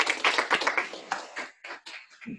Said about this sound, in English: Everyone, how about a round of applause from our studio audience?